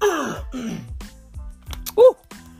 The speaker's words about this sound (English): Let me clear my throat. Ooh,